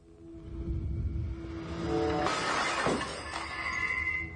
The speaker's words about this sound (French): Eh mais, qu'est-ce qui casse Des choses se cassent. Mes ampoules, mais enfin, tout se casse ici, mais...